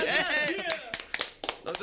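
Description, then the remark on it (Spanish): On the XFM radio show La Caminera, a voice laughs and talks at first, then a handful of sharp, scattered hand claps ring out, a brief, sparse burst of applause rather than a full crowd. “Un aplauso para Nosotros”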